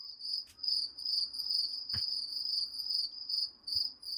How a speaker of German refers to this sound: ich, ich, mache hier auf jeden Fall Grillenzirpen rein.